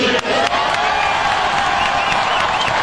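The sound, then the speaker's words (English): A large rally crowd cheering loudly and steadily, a dense roar of voices with shouts and whoops rising above it, plus scattered clapping throughout. “Will Bloomberg ever have a crowd that sounds like that?”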